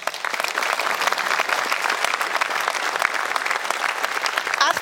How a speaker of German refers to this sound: Aktueller Führer im weiße Weste-Ranking ist Marc Flecken vom SC Freiburg. Fünfmal den Kasten zu Null gehalten. Dafür gibt es auch schon mal einen großen Applaus.